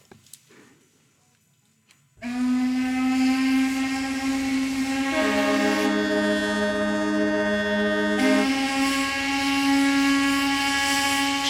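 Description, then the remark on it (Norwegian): Ship whistles in a harbour blare at twelve o'clock, sounded by ships worldwide to mark the situation of seafarers during the virus pandemic, after a brief quiet start: one loud, deep, steady horn tone, joined midway by a second slightly lower horn, then the first sounds on alone. “Skipsfløytene kommer til å høres i alle verdens havner klokken tolv i dag.”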